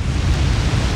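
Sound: big ocean waves crashing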